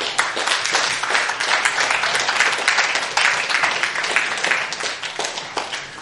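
A crowd applauds steadily, dense overlapping claps at a consistent, fairly loud level for several seconds with no one speaking, applauding people who came forward for prayer.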